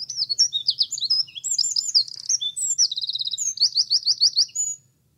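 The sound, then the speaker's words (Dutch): A Eurasian wren, a small bird about 10 centimetres long whose song reaches about 90 decibels, pours out a loud, rapid song of high trills and sharp chattering notes, one continuous burst lasting about five seconds before stopping abruptly, with a faint low hum beneath. “Was dat de Winterkoning? Dat was hem.”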